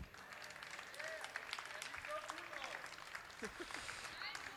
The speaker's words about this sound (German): Ihr dürft einfach weiter applaudieren.